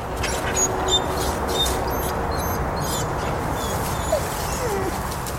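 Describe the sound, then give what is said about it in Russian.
A stressed wolf, left alone with a stranger, whimpers in short, thin, high whines that come and go over a steady hiss of background noise, fairly faint. “Оставшись с незнакомцем, Влог демонстрировал очевидные признаки стресса. Скулил и искал, где спрятаться.”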